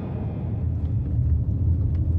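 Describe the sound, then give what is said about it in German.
Steady low engine rumble from inside a moving car, a continuous droning hum with road noise that holds at a constant level throughout, no voices. “das hier, worin wir gerade sitzen.”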